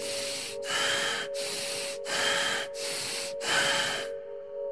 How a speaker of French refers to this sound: Breathe this way. Respirez de cette façon. Deep and fast, rasping breath, deep and fast.